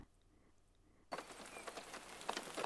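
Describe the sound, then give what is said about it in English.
After a second of near silence, a soft, steady hiss of rain begins abruptly, with scattered drops pattering on a surface, continuing to the end. “Rain purifies. It wipes clean the impurity of the objects around it.”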